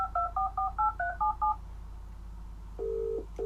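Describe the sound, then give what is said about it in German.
A quick run of about seven telephone keypad tones beeps out in a steady rhythm, each a short dual-pitched blip, followed by a pause and then two longer ringback-style tones. “Genau, das Telefon. Du hörst das Telefon.”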